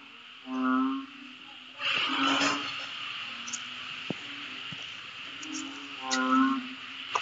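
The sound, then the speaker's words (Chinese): A strange, monster-like frog gives two deep, drawn-out, moaning croaks several seconds apart at night on Koh Samet island, where many frogs live around the accommodation. A steady high-pitched insect drone continues underneath, with a short burst of rustling noise between the croaks. “这是沙美岛的晚上，我我们住的地方有好多好多的青蛙，还有一个稀心古怪的像怪兽一样的青蛙，哇，它是哦哇哦哇哦，怪鸟没有。”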